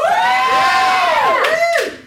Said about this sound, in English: Um, I love that. That got applause.